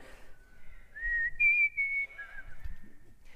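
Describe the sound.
A short whistled tune, the Hunger Games whistle, of a few sustained, stepping notes, clear, over a faint low background rumble with no talking.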